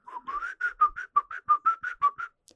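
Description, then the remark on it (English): A person whistles a short, bouncy movie theme tune, about a dozen clear notes in a steady rhythm, mid-pitched and fairly loud, with no talking. “occasionally there would be like a scene that would happen something would go on and there was a, a brief kind of a gasp like a, a breath vacuum area mm-hmm. and i would just start whistling”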